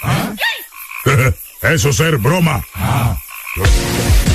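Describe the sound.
A toad croaks in loud, rasping pulses that fill most of the few seconds, with a burst of laughter and a short spoken phrase mixed in.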